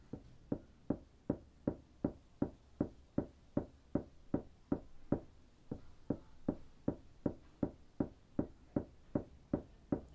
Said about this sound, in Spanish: ese cara de pija se puso a martillar, digo en voz alta, como queriendo que me escuche, pero con miedo de hacerme escuchar.